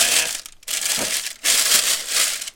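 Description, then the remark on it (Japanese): A plastic waste-sorting garbage bag, just taken out of its package, crinkles loudly in three bursts of dense, bright rustling, separated by two brief pauses, with no talking. “今これあの分別用ゴミ袋をね袋から出したとこなんですよなんだけどこれもいい音するじゃんこの袋のねガサガサ音これもいい音するわけですよ”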